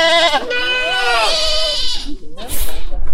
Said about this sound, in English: We are in a zoo and we are looking at the um, mountain goats. How are they called? Uh, do, do they have a special name? Or well, mountain goats will do. Mm-hmm. With big horns.